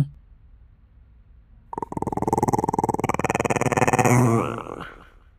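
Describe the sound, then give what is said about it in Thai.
A throaty, rattling growl made by children's voices as a threatening noise in the throat, sustained for about three seconds and swelling slightly louder before it cuts off, with no talking. “ตอนนั้นเด็กบางคนเริ่มทำเสียงขู่ในลำคอ”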